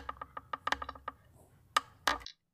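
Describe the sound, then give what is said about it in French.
A rapid series of dry wooden creaks and clicks from a violin tuning peg being twisted to imitate a bow being drawn in a video game, ending with two louder snaps. “Et il tourne, en fait, la vis un peu de, pour accorder. Et ça, ça fait le son”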